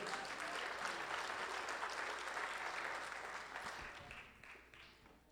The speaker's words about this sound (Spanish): Denle un aplauso al Señor, hermano, si usted puede.